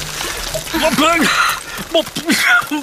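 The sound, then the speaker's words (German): Buckets of water splash and pour down in a heavy burst over a person who has slipped on a steep path with loose stones. The person lets out startled, wordless exclamations over the splashing. “Jetzt sind alle Wassereimer komplett über mir ausgekippt.”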